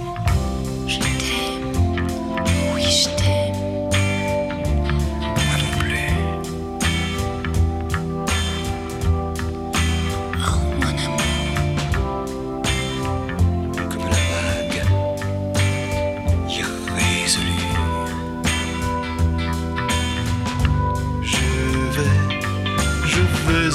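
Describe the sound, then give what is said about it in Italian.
A song plays steadily on air at full volume for the whole stretch, with sustained chords over a warm bass line and no one talking over it. “Beh, in questo clima vi lasciamo con una canzone che si può dire parla da sola.”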